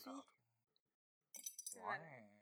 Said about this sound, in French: Je vais te déboucher une bière pour l'occasion. Oh, une bière, j'ai oublié ça, merde. Avec le bruit du bouchon.